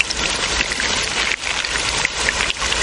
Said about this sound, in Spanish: El caballero coloca las hojas, formando una cascada de agua que conduce el líquido hasta Lady Ginebra. y ahora, bebed. Ginebra coloca la boca abierta bajo las hojas y deja que el agua caiga en ella.